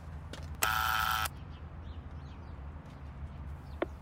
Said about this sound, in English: the apartment building is locked. Try the buzzer.